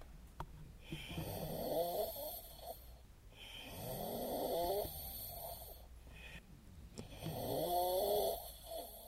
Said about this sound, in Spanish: A las 2 y 10 de la madrugada entramos en Ucrania. Y así es como suena el tren durante mis primeras horas en el oeste de Ucrania.